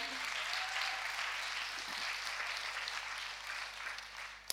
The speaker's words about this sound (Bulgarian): Вярваме ли? Да, може да го пляскаш, ако вярваш в това